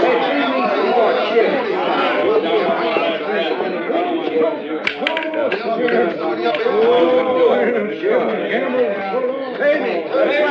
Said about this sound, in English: Some crowd, huh?